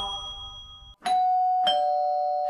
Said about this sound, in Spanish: Están tocando el timbre, a ver quién atiende, por favor.